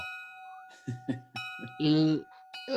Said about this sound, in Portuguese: Toca o sino? Toca o sino. Toca o sino, toca o sino.